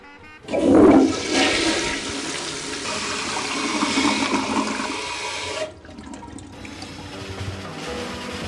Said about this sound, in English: You know what? You know what? Let's flush this turd.